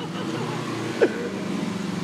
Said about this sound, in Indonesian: Sorry ini lagi di rekamannya di jalan, di pinggir jalan. Jadi kalau kalian mendengar mobil, motor, ya mohon dimaklumi naturalnya seperti ini